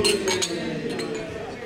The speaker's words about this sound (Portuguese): Então vamos brindar essa, essa Black IPA aqui. Saúde!